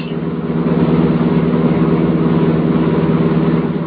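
bus engine running

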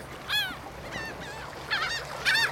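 seagull calls

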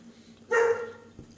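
dog barking

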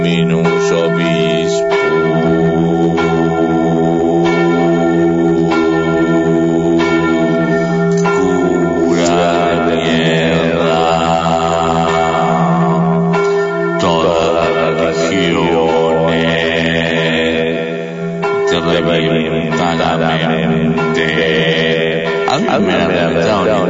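church bell ringing

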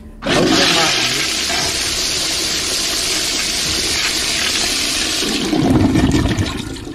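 toilet flushing

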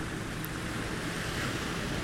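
ocean waves

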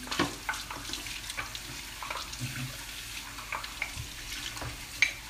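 tap water running

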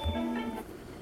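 mobile phone notification sound

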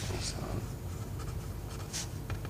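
pen writing on paper

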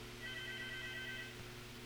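telephone ringing

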